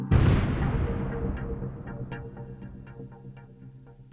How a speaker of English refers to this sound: Holy moly, my dad says. And that's when we hear the first explosion.